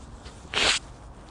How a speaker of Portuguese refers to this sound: Perdão, lá dizia eu que ia ter que me assoar porque está realmente muito pólen no ar e eu estou com alergia. Peço desculpa.